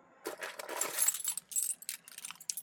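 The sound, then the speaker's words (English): A bright metallic jingle of keys shaking and clinking in a car for a couple of seconds, in irregular bursts with sharp high tinkles, and no voices. “Oh, where's my keys?”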